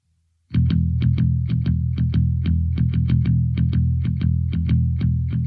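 A band launches into a song intro: a thick, sustained distorted electric guitar over a steady, driving drum beat with crisp regular hits, loud and continuous with no vocals yet.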